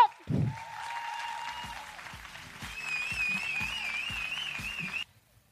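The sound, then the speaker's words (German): A live audience bursts into sustained, loud applause for a female guest, an actress, as she is introduced, with cheering and shrill whistles rising over the clapping partway through, before it cuts off abruptly. “heute hier Macht mal richtig, richtig, richtig Lärm für Maike Johanna Reuter”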